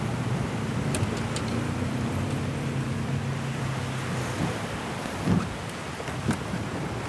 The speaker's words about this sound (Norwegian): Nå er det åpen båt og påhengsmotor resten av veien. Vi skal trosse bølger og kuling, for vi skal til Vingen og inn i steinalderens verden.